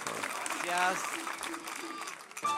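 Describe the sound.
A crowd claps in a steady, dense patter for a few seconds, with voices and scattered cheers rising over the applause.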